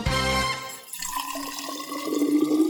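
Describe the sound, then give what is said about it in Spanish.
Water is poured into a mate gourd with fresh yerba, a gurgling stream that starts with a splashy rush and then rises slightly in pitch as the vessel fills. No voices. “Yerba renovada y agua lista para volver a tomar unos ricos mates”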